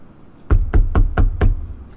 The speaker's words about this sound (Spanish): Tocan la puerta a las 3 de la mañana.